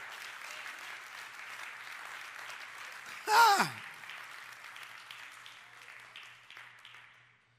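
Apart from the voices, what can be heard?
audience applauding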